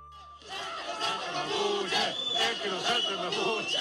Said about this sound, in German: El que nos salta ist Mapuche, wer nicht springt, ist Mapuche. Was wir im Hintergrund hören, das sind rechte Gruppierungen, die vor einem Gebäude auf und ab springen und Eisenstangen in den Händen halten.